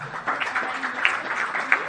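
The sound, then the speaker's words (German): An audience at a family afternoon event claps for a newborn baby in a steady, dense patter of many hands, with no single claps standing out, holding at an even, moderate loudness throughout the two seconds. “Sind aber zu frisch, ist noch nicht hier, aber auch dafür ein Applaus.”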